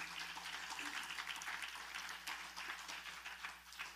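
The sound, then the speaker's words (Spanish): An audience applauds together for God, a dense, even crackle of many hands clapping that holds steady for about four seconds with no voices over it. “Dele un aplauso a Dios, amén.”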